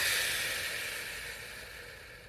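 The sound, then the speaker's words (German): A long, steady breathy hiss of air being slowly exhaled during a breathing exercise, inhaling on a count of three and exhaling on a count of six; soft, gradually fading over about two seconds with no talking. “Also zum Beispiel einatmen auf drei und dann wieder ausatmen auf sechs.”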